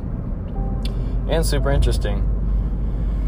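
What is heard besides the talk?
car road noise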